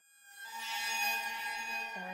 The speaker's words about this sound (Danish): Det lyder som om, der er sådan en kugle, der triller.